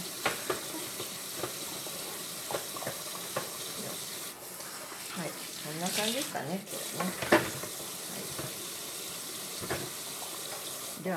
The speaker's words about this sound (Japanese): 今日は洗い物をしながら水の音を聞きながらお送りしました。